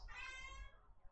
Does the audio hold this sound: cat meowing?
yes